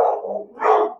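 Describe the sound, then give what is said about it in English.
A dog barks twice in quick succession, two loud, full-bodied woofs, with no talking over them. “I'm sorry that my dog's barking right now.”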